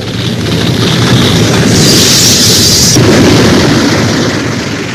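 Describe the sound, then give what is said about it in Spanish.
A continuous, heavy roar of a torrent of water, mud and stones carrying branches and tree trunks, breaking into inhabited areas at 3:30 on 6 September, loud and rumbling throughout with a hissing wash on top, no voices present. “Justo a las 3 y 30 de aquel fatídico 6 de septiembre, los habitantes del sector escucharon un ruido aterrador y antes de que muchos pudieran reaccionar, una verdadera avalancha de agua, lodo y piedras irrumpiría en las zonas habitadas destruyéndolo”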